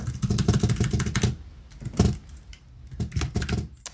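Rapid bursts of computer keyboard typing while searching an article, a quick flurry of clacking keys that pauses briefly before resuming in short uneven runs.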